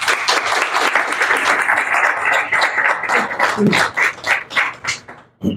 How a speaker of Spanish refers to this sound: O sea, que ahora yo sí que le pido el aplauso, pero por esto que acaban de hacer, que es un documento maravilloso. A ellos cuatro.